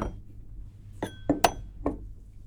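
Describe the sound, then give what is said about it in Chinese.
A few sharp clinks of a thick-based glass coffee tasting cup made with the wine glassware company Riddle, about four or five tapped irregularly with a brief bright ring after some of them, over a faint low background hum and no talking. “对，我们就是在跟这一个 Riddle 非常有名的一个红酒玻璃器皿的一个公司合作推出的一个咖啡品鉴杯。对，好，我们现场来做。”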